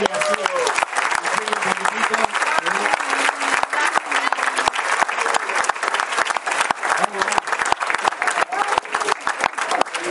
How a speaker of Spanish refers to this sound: Le damos un fuerte aplauso a